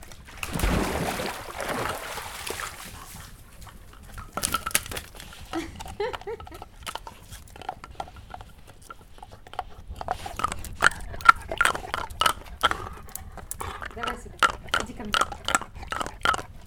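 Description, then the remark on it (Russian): A dog splashes through pool water to fetch a stick, with a loud burst of splashing at first, then scattered sloshing and dripping, while people speak briefly in between. “увидели, что она просто туда заходит, в этот бассейн. И теперь мы туда кидаем ей палки, она их оттуда выносит.”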